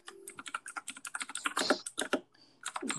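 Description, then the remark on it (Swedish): Rapid, irregular clicking of keys on a computer keyboard as someone writes something down, fairly loud, with a brief pause near the end before the tapping resumes. No one speaks. “Jag ska bara skriva upp det här.”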